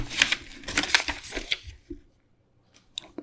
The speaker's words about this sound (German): Und ähm, jetzt muss ich mal umblättern.